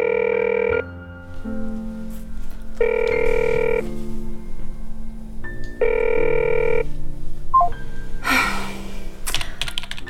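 A phone rings three times in steady, evenly spaced bursts and nobody picks up; soft clicking and tapping continue underneath, followed by a brief rustling clatter near the end.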